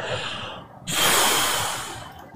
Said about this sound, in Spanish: El próximo paso es, una vez usted tiene claro lo que desea alcanzar, usted toma una respiración y la retiene por algunos 10 segundos y luego